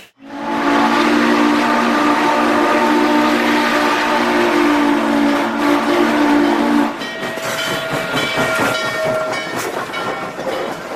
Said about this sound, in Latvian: Kas tur bija? Miega vilcieni. Varbūt veļas mašīna. Mikro viņa krāsnes. Tas bija vilciens, jā.